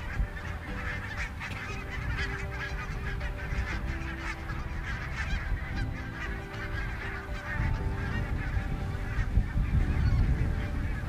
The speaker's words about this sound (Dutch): Ja, dit tref je in de stad dan niet meer. Al die ganzen. Dat is ook het mooie van de natuur, van buiten.